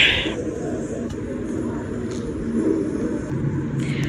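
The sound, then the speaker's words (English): A steady, low engine rumble inside an airplane cabin, a constant droning hum with a faint hiss above it and no clear voices. “Hey guys, we're on the plane.”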